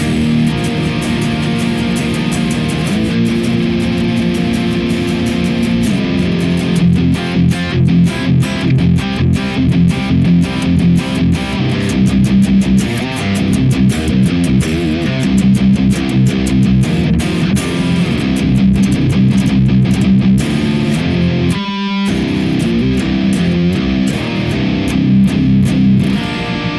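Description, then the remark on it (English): Heavy, saturated electric guitar riffing with thick chugging low end and dense harmonic crunch, played steadily and loud with a brief stop near the end, no voices. Played through a Bionic Expandora clone into an ODR1 clone and the Sound of Justice FX Nobleman amp simulator in Neural DSP, with 6L6 power tubes and a Mesa oversized cabinet. “So it's the Nobleman from Sound of Justice FX, and that is running six L six power tubes and running a uh, Mesa uh, oversized cabinet.”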